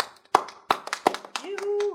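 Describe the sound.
Brief, sparse applause for two new female guests on a show in Mexico: a handful of sharp hand claps at an uneven rhythm, followed by a sustained voice, like a drawn-out cheer, as the clapping fades.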